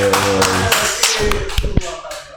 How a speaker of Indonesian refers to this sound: Hatur nuhun tepuk tangan kanggo